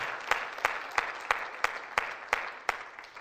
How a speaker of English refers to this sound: Folks, we have people here that just gave their life to Christ. Can you give a God, God a clap after you? Amen.